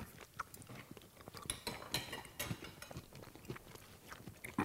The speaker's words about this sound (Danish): Nu fik jeg sådan en bid med, med, med relativt meget, øh, øh, hvad hedder den, øh, rødkålen der.